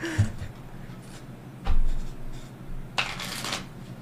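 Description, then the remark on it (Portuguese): A deck of playing cards is shuffled, with a brisk riffle near the start, a thump around the middle, and a longer crisp burst of flicking cards toward the end. No one speaks. “Depois me dá uma baralha pra eu conferir se tu sabe mesmo.”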